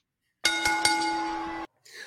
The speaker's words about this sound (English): Ring me that bell.